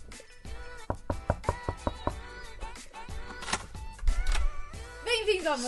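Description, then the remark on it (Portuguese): A rapid series of sharp knocks on a hotel room door, about half a dozen in quick rhythm, to call someone to leave for the stadium, followed by people talking and a lively voice over background noise. “o som deu batendo na porta do, do, do quarto do hotel dele para a gente ir embora para o estádio”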